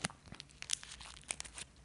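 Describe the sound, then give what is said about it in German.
A large plastic pack of marshmallows being torn open, with a burst of crinkly rustling and several sharp tearing crackles spread irregularly over about two seconds, fairly quiet, no talking. “jetzt habe ich einen riesen Pack Marshmallows offen gemacht.”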